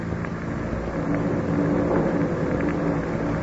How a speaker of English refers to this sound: Did you hear that? Thunder in the distance. Oh, I hope Justine has the intelligence to bring William home before the storm shows signs of breaking.